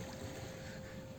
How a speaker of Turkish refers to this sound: Şu dalga sesi her şeye bedel ya. Evet, bu güzel. dalga yani.